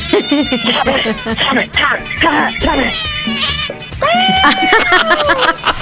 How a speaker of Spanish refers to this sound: Le dio una pedrada. De último, de, último, se escuchó como herido, el gato herido.